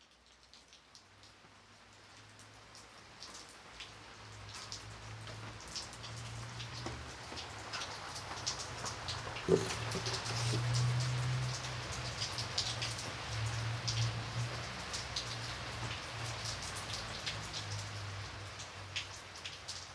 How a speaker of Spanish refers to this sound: Nelson caminaba bajo la lluvia rumbo al domicilio de Jimena.